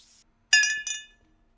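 Glasses of milk clink together in a toast: a couple of quick, bright, ringing chinks, with a short shimmering tail that fades out. No one speaks.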